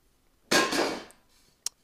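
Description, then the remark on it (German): A bell is struck once with a loud metallic clang that rings out and fades over about a second, followed by a couple of short, sharp clicks. “Da war, da hat ja gerade, die haben es ja vorhin erklärt, jemand die Glocke geläutet.”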